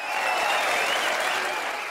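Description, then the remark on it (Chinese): An applause sound effect: steady applause from a crowd, dense clapping that fills the full two seconds at an even, fairly loud level with no break and no voices on top. “哎，你每次念完信，我都有种很想要帮你鼓掌的，就是感觉要配一个那个鼓掌的音效。”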